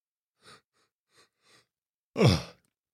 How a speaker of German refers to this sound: Ach so, man hm. soll nicht gähnen, ne? Ich bin gar nicht müde. Wieso man soll nicht gähnen, ja. weil es ansteckend ist oder wie kommst du da?